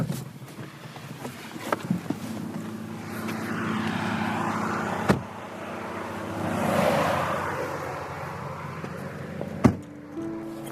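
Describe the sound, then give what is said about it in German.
A car speeds past, its road roar swelling to a peak midway and then fading away, with a steady low hum underneath and a couple of sharp knocks. “Hier sehen Sie wieder ein Fahrzeug, was ziemlich schnell hier lang fährt.”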